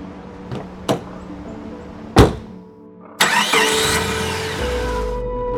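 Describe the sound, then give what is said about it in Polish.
A few sharp knocks and clunks, then a car engine roars to life and keeps running with a steady hum that deepens toward the end, fairly loud, as the car is driven a few more kilometres. “przejechałem jeszcze parę kilometrów.”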